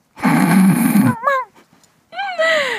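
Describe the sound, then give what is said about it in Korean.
A radio DJ imitates dog sounds during a live Friday broadcast: a loud, rough growl-like burst, then a quick yappy bark and a rising, whiny howl, with a short pause between. “다양한 강아지 소리를 냈었군요.”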